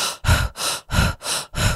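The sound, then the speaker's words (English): A person demonstrates holotropic breathwork, breathing in quick, sharp bursts from the chest rather than the diaphragm, about six rapid alternating inhales and exhales in under two seconds, fairly loud, with no talking. “And holotropic breath is the short breath, it's from the chest.”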